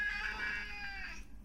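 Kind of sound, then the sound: animal, cat meowing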